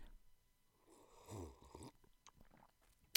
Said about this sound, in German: Und deswegen gibt es jetzt einen Ingwer-Apfeltee, um einfach mal kurz alles, alles auszubalancieren, was die letzten Stunden passiert ist. Ja, deswegen, bei mir gibt es Ingwer-Apfel, übertrieben lecker. Einmal kurz Taste-Test. Achtung, schlürfen.